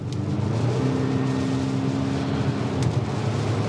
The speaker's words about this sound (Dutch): Een tevreden knorrend dieseltje op de achtergrond.